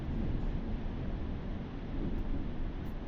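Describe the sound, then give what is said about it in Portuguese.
A steady, dense roar of heavy rain pours continuously outdoors, a thick rushing wash of noise with no pauses and no voices. “Caralho, bicho, começou a chover mais do que tava chovendo.”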